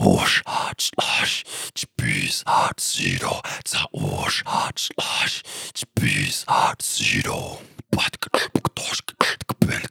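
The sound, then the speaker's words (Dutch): Breathy, airy inhaled vocal percussion from one voice using the beatbox wind technique, a rhythmic pattern of hissing whooshes and clicks repeating in loops, finishing with a quick burst of sharp staccato hits. “met het nadoen van eh, de windtechniek. Dat is ook best wel bekend in de beatbox scene”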